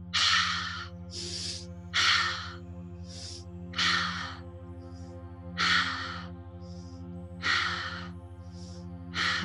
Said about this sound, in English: So we're going to breathe in through our nose and we're going to bring it to our belly first.